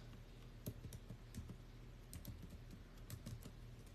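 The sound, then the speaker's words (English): Typing on a computer keyboard, a steady run of crisp key clicks at an uneven pace with no one talking, against a faint low background hum; a search for a Jeffrey Dahmer Netflix building teardown is being typed. “Oh god, I hate even typing this in.”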